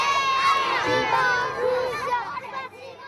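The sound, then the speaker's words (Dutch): A crowd of schoolchildren cheering and shouting together for a visiting Russian minister, a dense, high-pitched clamour of many young voices that stays loud and steady for about three seconds. “Zelfs schoolkinderen zijn opgetrommeld om de Russische minister toe te juichen.”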